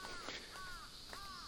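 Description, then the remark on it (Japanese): Bird calls ring out in a mountain forest, a few short whistled notes repeating at intervals over a steady high hiss of insect calls, with no talking. “はい、あのー、森の声、えー、鳥の声虫の声が、まあ、あちこちから聞こえてくるっていうこう広がりがやっぱりステレオのスピーカーとかイヤホンで聞くと感じられたなと思うんで、まあ、そこはやっぱちょっと面白いなと思っていて、まあ、今日のこの森の音もどんな感じになるか若干楽しみです”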